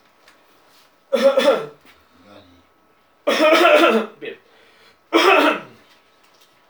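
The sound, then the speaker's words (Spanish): Three harsh coughing bursts with throat clearing, spaced a couple of seconds apart; the middle one is longer and followed by a short extra hack. A brief spoken word comes between them. A speaker coughing during a Spanish-language Bible teaching. “Me, dio por toser.”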